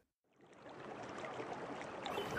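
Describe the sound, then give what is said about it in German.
Steady, dense rain patters on a tent roof, a continuous hiss of countless tiny drops that begins abruptly and holds even throughout, with no voices. “Naja, Video, es ist immer ein Foto zu sehen, da bewegt sich nichts, in dem nichts anderes läuft als das Geräusch, das Regen auf einem Zeltdach macht.”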